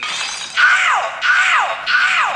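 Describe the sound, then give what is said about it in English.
Car window glass smashing loudly as thieves break through the window, in three quick crashing bursts, each with a bright shattering burst that trails off into falling debris, no voices. “Thieves have broken through the window.”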